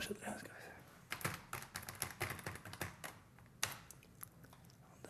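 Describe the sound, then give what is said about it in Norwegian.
Typing on a computer keyboard while ordering Norwegian e-books online: an irregular run of sharp key clicks, bursting in quick clusters and pausing briefly over a low background. “viser hvordan han tinger norske e-bøker på nett.”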